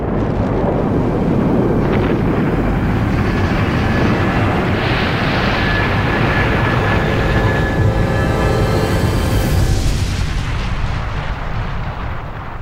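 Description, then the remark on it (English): The Apollo 11 rocket blasting off with its three-member crew: a loud, steady, crackling roar that fills the entire clip, with faint whining tones running through it and a slight easing toward the end. No voices. “In less than one hour, if all goes according to plan, the three members of the Apollo 11 crew will blast off in their.”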